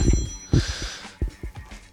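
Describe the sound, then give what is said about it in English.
A phone rings with a bright, tonal electronic ring through the first second, fading as a few low thumps and knocks sound. “There's your fucking phone.”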